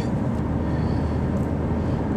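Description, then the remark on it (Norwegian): A heavy bus engine rumbles as a bus marked Sort Line drives past, a deep, steady drone with road noise that holds at an even loudness, with no voices over it. “Sort Line står det på bussen som kjørte forbi her nå.”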